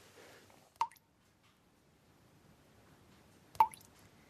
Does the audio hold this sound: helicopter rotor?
no